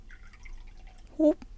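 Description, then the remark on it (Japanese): Sparkling cloudy sake is briefly poured into a glass for a Christmas toast, a short gurgling glug with a rising tone, followed by a light clink, against a faint background murmur. “お、おととと結構いっぱい入れちゃったわ。全然いいわよ。じゃあ私もいただくわ。”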